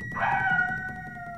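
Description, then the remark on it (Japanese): A dog lets out a single long, mournful howl, a steady drawn-out wail that holds its pitch with a slight rise, clear over a faint low rumble. “犬も怨念”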